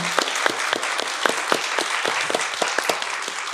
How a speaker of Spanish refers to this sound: le mandamos un aplauso con mucho amor y mucho cariño.